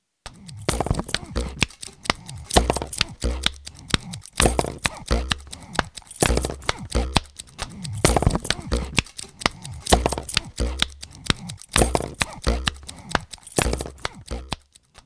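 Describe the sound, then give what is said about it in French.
A busy looped rhythm made from objects that were lying around: clicks, snips, scrapes and crunchy taps repeat in a steady pattern, layered with low thumping hits, moderately loud with no talking. “Et enfin, histoire de rigoler un petit peu, une autre boucle réalisée par mes soins avec des objets qui traînaient.”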